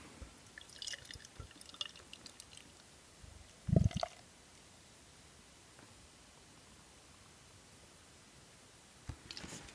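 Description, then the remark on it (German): Canned beer pouring quietly into a glass: a soft, steady hiss of liquid and fizz with scattered drips, one brief louder knock partway through, and no talking. “Ich gieße mal was ein.”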